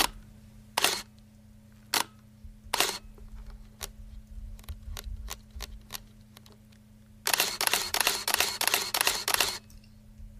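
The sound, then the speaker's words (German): An electric camera, likely a 1980s model, whirs and clicks: a few separate shutter snaps, then a rapid burst of motorized clicks near the end over a steady low mechanical hum, clear with no talking. “Das ist ja mal eine Kamera.”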